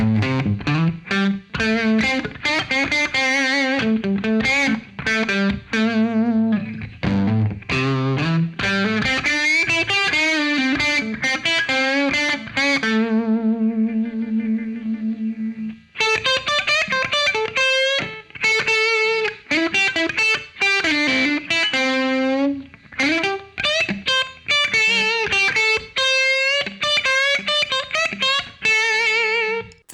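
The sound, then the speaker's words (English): Electric guitar run through a Phaseomatic tube phaser set to a notch-filter sound, giving a nasal, hollow tone. Melodic phrases with sliding notes play continuously for about thirty seconds, with a brief sustained chord midway and no talking. “I have the Phaseomatic set up into like a sort of a not notch filter vibe.”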